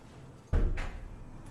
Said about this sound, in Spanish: Se cierra la puerta.